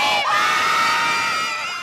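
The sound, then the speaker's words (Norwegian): A large crowd cheers and shouts in a loud, continuous roar of overlapping voices, holding steady for a couple of seconds before easing off slightly at the end. “Du jubler ja, jeg, og gråter.”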